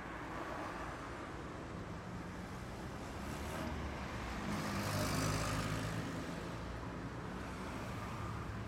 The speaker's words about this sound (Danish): Det er dejligt vejr, og solen skinner ned på det grønne græs. Bilerne foran Geos hus kører langsomt hen ad vejen.